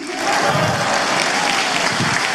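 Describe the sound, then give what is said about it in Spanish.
An audience breaks into steady, sustained applause for the Lord, a dense wash of many hands clapping that stays loud and even throughout, with no voices standing out. “Vamos, denle fuerte ese aplauso al Señor.”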